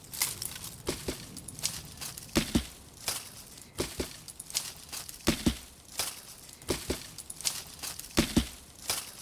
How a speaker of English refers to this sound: And to create the rhythm, I used uh, a big branch by hitting it against the cortex and, and leaves. So basically it's like this.